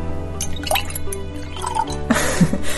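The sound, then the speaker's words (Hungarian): Green wine, clear and white-wine-like, pours into a glass: a continuous splashing, gurgling trickle with small drips and a brief louder burst near the end, no voices over it. “Töltök is most ebből a kis zöld borból Talán hallják a kedves hallgatók, hogy mi a töltés folyamata.”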